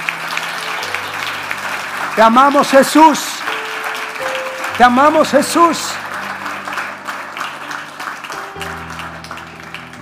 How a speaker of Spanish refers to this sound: Dale un fuerte aplauso que vive y reina.